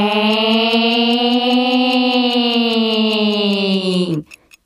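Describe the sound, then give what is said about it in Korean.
A voice imitates a fire truck siren wail, holding one loud, steady, nasal tone for about four seconds before it drops off abruptly at the end. “소방차 소방차는 웨”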